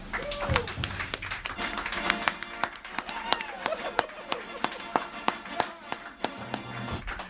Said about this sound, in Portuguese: Essa dupla maravilhosa quero receber ó. com muitos aplausos, por favor, todos que estão aqui. Vamos recebê-los agora.